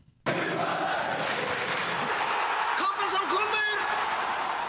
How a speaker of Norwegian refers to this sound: Tilfeldig at vi har jubel i, i jingeren? Tvilsomt.